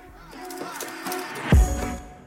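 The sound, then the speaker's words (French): A photo printer printing a photograph runs with a steady mechanical hum and whirring, its rhythm shifting slightly, then a brief low thump partway through before the motor continues. “Cette déambulation dans la planète initiale commence donc aux côtés de l'imprimante,”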